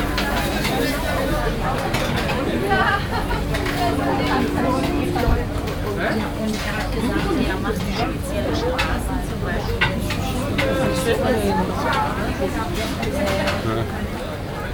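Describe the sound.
A steady wash of overlapping voices and chatter fills the outdoor Winterfeldtmarkt, many people talking at once, with occasional clinks and shouts rising from the crowd.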